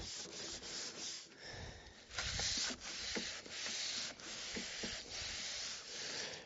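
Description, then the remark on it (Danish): Steady rubbing across a wooden table that has just been sanded, a wet cloth swept back and forth in repeated strokes with a soft scratchy swish, wiping it down before oiling, continuing for several seconds without any voices. “Jeg har fået slebet det tre gange, så nu skal jeg lige have tørret af med en våd klud, og så skal jeg give det olie.”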